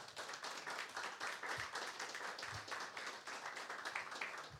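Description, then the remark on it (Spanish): An audience at a Spanish-language church service applauding together for God before prayer, a dense, steady wash of many hands clapping that stays fairly even in loudness throughout, with no voices standing out. “Un fuerte aplauso para nuestro Dios y vamos a orar.”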